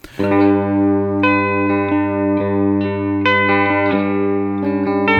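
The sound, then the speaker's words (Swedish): An electric guitar plays through an effects pedal, with a thick, sustained, distorted tone. A series of notes and chords changes roughly every half second, steady and loud, with no talking. “det som är coolt med den här pedalen är ju att när man håller på med den igång så, så tappar man till slut, det hörs inget, man stänger av den så upptäcker man oj, den gör ändå en hel del.”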